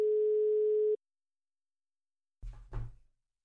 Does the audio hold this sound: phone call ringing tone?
yes